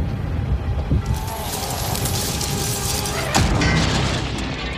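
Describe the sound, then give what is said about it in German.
A loud car crash with four cars colliding and being pushed together on a road in the middle of nowhere: a dense roar of crunching noise, with two heavy booming impacts, one early and one later, and no voices. “Sein Kopf brummt, ihm tut alles weh vor ihm vier Autos ineinander gefahren, zusammengeschoben, Schrott, mitten im Nirgendwo.”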